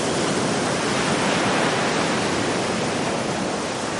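Sea waves rush in at the shore in a steady, unbroken roar of hissing surf, loud and even throughout, with no distinct crashes standing out and no voices, as someone wades out into the water jumping the waves.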